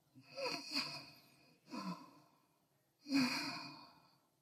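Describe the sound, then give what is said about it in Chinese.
A voice imitates the heavy, relaxed breathing of a man slumped on a sofa, absorbed in watching TV: three slow, breathy exhalations with a low rasp, each swelling and fading, separated by short pauses, the last one the loudest. “他窝在沙发上啊，完了，一一一按看认真进去啊，完之后他那个呼吸声就重了，他就变成了，”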